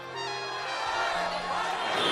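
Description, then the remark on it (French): A large, dense crowd at a memorial march (marche blanche) in Nanterre, France, in summer 2023, protesting a fatal police shooting, murmurs and calls out together outdoors, a steady wash of many voices that holds at a constant moderate level throughout, with no single speaker standing out. “La foule est compacte, immense. Une marche blanche avec pour mot d'ordre justice pour Naël.”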